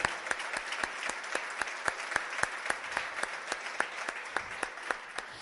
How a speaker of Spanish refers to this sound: Se va a dar un aplauso, déselo al Señor.